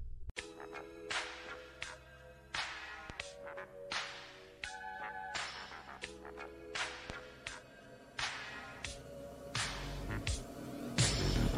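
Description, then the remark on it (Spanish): A song intro plays with sharp, whip-like percussive cracks landing in a steady rhythm over sustained low tones and synth notes, fairly loud, with no voices. “Entonces, quiero ponerles una, una nueva canción unos temas que he estado escuchando últimamente”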